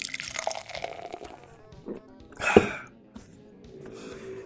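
Someone takes a sip of a drink: soft liquid slurping and a short, louder gulp midway, followed by quieter mouth and swallowing sounds, with no talking.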